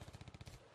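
A gunshot sound effect: a rapid burst of about a dozen sharp shots fired in quick succession like an automatic weapon, loud, with no voices, fading out at the end.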